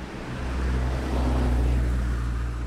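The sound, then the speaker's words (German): A Line 1 city bus pulls up to a stop, its deep diesel engine rumbling and swelling slightly louder as it draws in, a steady low drone with no voices. “da kommt die Linie 1.”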